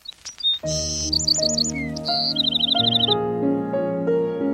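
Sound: small bird singing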